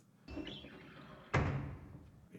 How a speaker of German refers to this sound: So, okay, als erstes, da ist es. Müssen wir mal einsteigen und die Türen verschließen.